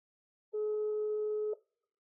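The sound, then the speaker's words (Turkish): A single steady telephone ringback tone, about one second long, clear and electronic, with a sustained hum-like pitch and faint harmonics, then silence. “Çalıyor.”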